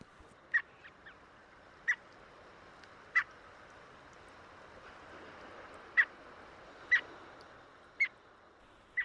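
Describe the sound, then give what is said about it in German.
Red knot chicks peep from a nest, giving about eight short, thin, high calls at irregular intervals over a soft, steady outdoor hiss, with no voices. “Wir hören vielleicht an der Stelle auch mal so ein bisschen das, das Piepen von den kleinen Knuts äh, aus dem Nest.”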